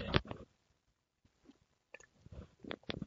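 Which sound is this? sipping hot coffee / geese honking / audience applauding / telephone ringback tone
sipping hot coffee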